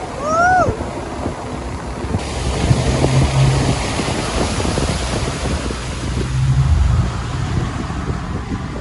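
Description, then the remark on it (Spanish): A steady, dense roar of a waterfall on the Zambezi River fills the whole stretch, loud and unbroken, with a low droning hum underneath and a brief rising whine near the start. “La cascada.”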